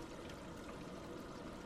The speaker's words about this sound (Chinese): 我立在洗手盆前。打开水龙头，哗啦哗啦，不停的在冲洗着双手。